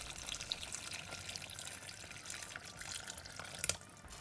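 A cup of broth, made from a bouillon cube dissolved in hot water, pours steadily over a stew in a pot in a continuous splashing stream, with a brief louder splash near the end before it tapers off.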